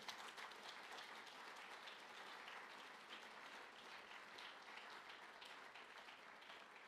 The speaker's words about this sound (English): And that is why we are going to, yes, I think you should go ahead and clap for the Lord.